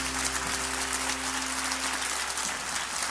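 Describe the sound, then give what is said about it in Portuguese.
Sustained applause from an audience applauding the Lord at a Unischool graduation service, a steady dense wash of many hands clapping over about three seconds, with a low constant hum underneath and no voices. “Você pode aplaudir o Senhor nesse momento?”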